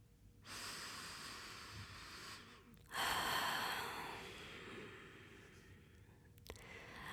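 Two long, slow, deliberate deep breaths, a steady drawn-out inhale followed by a deeper, louder exhale, with no talking.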